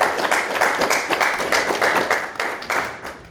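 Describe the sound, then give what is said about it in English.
A short burst of applause from an audience thanking a guest at the end of a talk, dense overlapping claps with a bright crackling texture, fairly loud and steady for a few seconds with no talking over it. “So yeah, quick round of applause, please.”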